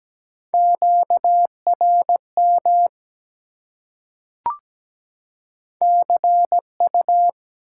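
Morse code beeps at 17 words per minute in a steady mid-pitched tone, sending common radio contact (QSO) elements as short and long pulses in quick groups, broken by a pause with a single click before the keying resumes. No voices.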